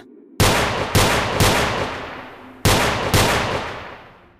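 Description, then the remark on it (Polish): Five loud gunshots fired by a police officer in a park at night, in two bursts, three quick shots then a pause and two more, each sharp crack echoing through the park and trailing into a long ringing echo that fades slowly. “Odgłosy strzałów odbiły się w parku echem a po ich wygaśnięciu nastała głucha cisza.”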